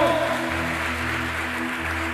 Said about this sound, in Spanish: Fuerte ese aplauso al Rey de Reyes. Fuerte ese aplauso al Señor de Señores.